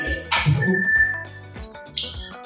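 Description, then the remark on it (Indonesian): A melodic electronic alarm clock tone rings out, a short repeating ringtone-style tune playing clearly and fairly loud on its own with no voices over it. “aduh alarm jam gua bunyi.”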